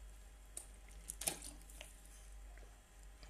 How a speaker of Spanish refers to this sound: voy a tomar agua, entonces se va a escuchar. Lo siento.